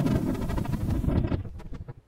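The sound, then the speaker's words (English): Thunder as it would sound in the atmosphere of Venus, simulated by Dr. Leighton: a deep, muffled rumble rolls loudly for about a second and then fades out in a few scattered, softer crackles, heavy in the low end, with no voices. “And here's what it would sound like on Venus.”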